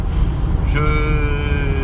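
car driving

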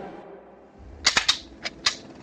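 soldiers firing guns

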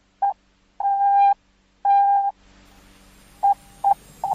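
morse code beeps

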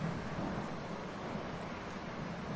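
rain falling outdoors

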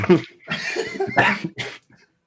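coughing

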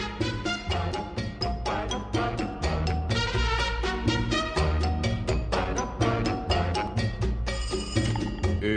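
telephone bell ringing

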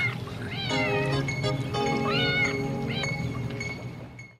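cat meowing

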